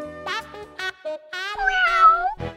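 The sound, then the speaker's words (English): A cat meows several times in quick succession, short calls building to one long, drawn-out, wavering meow, clear with no talking. “oh no, only a cat?”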